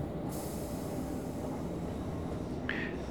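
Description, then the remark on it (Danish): Steady low rumble of a passenger train in motion, heard from inside a carriage, with a brief high metallic squeal near the end and no voices. “Nu har jeg i snart 10 minutter stået og betragtet mine landsmænd her i toget.”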